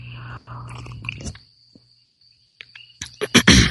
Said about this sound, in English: I'm going to take a sip of my tea here.